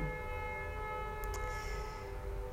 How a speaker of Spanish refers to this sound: Sí, suena una bocina.